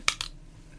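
Glasses being taken off: two quick, light plastic clicks close together, fairly quiet, followed by near silence.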